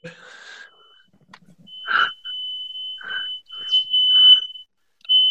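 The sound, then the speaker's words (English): A smoke detector alarm, set off by an oven, sounds a piercing, high-pitched tone that holds steadily for several seconds, fairly loud, while people talk in short bursts over it. “Is that your fire alarm? My fucking fire alarm.”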